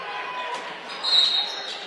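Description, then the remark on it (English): A referee's whistle gives one shrill, steady blast lasting about half a second, calling a foul on Marquette before the inbound in a basketball game against Westwood, over the constant murmur and clatter of the crowd. “And we have a whistle prior to the inbound.”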